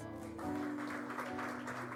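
An audience applauds, a dense, steady patter of many hands clapping that carries on evenly for about two seconds, with a low steady hum underneath.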